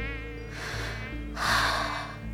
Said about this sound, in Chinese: 好像在黑暗中，耳边突然响起蚊子的嗡嗡声。等开了灯，却又什么都看不见。